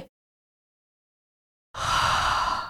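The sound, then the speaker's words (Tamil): After a stretch of silence, a narrator gives one drawn-out, breathy yawn, fairly loud, imitating a sleepy person and cut off at the end. “சொர்ணாம்பாள் கொட்டாவி விட்டுக்கொண்டே”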